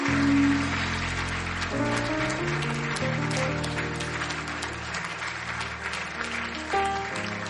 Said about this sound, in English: Clap for them.